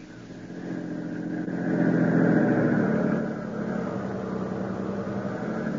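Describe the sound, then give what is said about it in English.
A car engine hums steadily, swelling louder for a moment as it labors, with a low rumbling drone as the car drives at night along a rough, potholed road far from town. No voices. “This road to the location is so rough. I don't see how you can see all the holes at night, Harold.”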